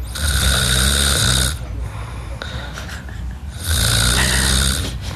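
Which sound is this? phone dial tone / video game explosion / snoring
snoring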